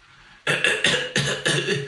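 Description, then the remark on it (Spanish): A quick run of about five small, dry coughs coming in rapid succession with no talking around them. “y, y esta, y esta, y esta, y esta tosecita, y ya te toca la fiebre, uy, me parece que tengo fiebre”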